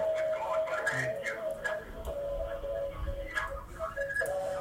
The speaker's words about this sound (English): Yeah, that sounds like a pocket dial.